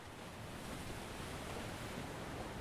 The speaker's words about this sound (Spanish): El silencio de nuestra falta de plática era interrumpido por el sonido del mar y el viento.